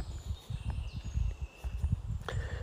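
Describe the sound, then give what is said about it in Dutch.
Many birds sing all around a person walking in a forest early in the morning, with scattered chirps and thin whistles above a low, uneven rumble of footsteps and outdoor movement; the sun is out and puddles lie from yesterday's rain. “Waar ik nu loop hoor ik heel veel vogels om me heen.”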